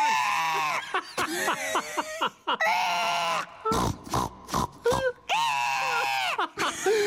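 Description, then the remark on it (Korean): Loud piglet squealing as it escapes from an opened ammunition box and runs into a train's general carriage, long shrill wavering cries broken up by a run of short, rough grunts in the middle, then more drawn-out squeals toward the end. “우리들의 돼지 베이비는 유명의 착한을 탈출 일반 탄으로 도망가기 시작했고”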